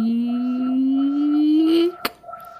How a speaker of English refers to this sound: So we did that and snuck back to the temple, and I opened the door. Creak.